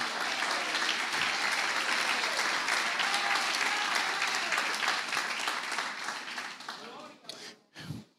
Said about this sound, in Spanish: ¿Cuánto dan un aplauso al Señor?